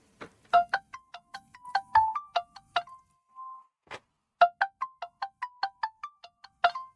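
A phone rings over a speakerphone as a call is placed during a livestream: a quick melodic run of short, bright electronic notes, a brief held tone and pause, then the tune repeats. No one speaks.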